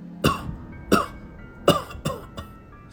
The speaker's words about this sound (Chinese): 两声老人的咳嗽声再次从我车内响起。我收音机都已经关上了，这声音我确认不是从喇叭里发出来的，它好像是从我车内传出来的。